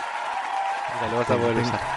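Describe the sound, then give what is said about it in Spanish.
Dense, steady standing-ovation applause from a crowd, a sound effect, fills the whole stretch, with voices of cheering people rising over it during the second half. “ovación de pie, porque tengo un efecto de sonido que se llama ovación de pie.”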